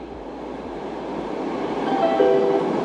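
Steady rumble of a Stockholm subway train running through a tunnel between stations, next stop Slussen, a broad roar that slowly grows louder, with a brief metallic squeal of wheels near the end. No voices.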